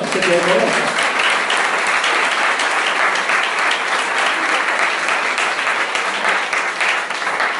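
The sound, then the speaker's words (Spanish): An audience breaks into loud, sustained applause for the Lord, a dense wash of many hands clapping steadily for several seconds, with a brief voice rising over it at the very start. “Tiene el aplauso al Señor.”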